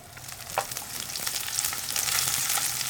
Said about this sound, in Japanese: では油を引いたところに入れて焼いていきたいと思います、はい、ちょっとあの片栗粉まぶしてるんで、はい、まあ、普通に肉を焼くよりは多めの油でやった方がいいですね